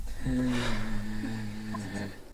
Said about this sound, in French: inviter l'équipe du WICAP à prendre une grande respiration